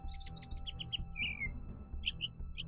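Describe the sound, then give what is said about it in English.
A small bird chirps rapidly in a quick series of high, bright notes, followed by a short descending trill and a few scattered chirps, over a low background rumble. “Just, you just hear him chir- chirping away.”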